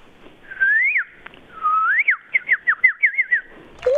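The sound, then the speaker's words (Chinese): A person whistles an imitation of a bird call, one of ten animal sounds imitated on request: two long rising slides followed by a quick run of short, high chirping notes, clear and fairly loud with no talking over it. “那是鸟呢”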